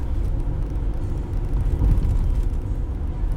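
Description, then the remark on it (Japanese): Steady low rumble of a car engine and road noise from inside a moving vehicle, continuous and fairly loud throughout, with no voices or other distinct sounds. “まあ、前も言いましたけどこの車に感謝する時もありますけど”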